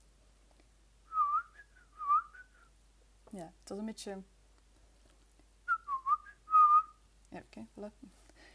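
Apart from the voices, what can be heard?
person whistling with lips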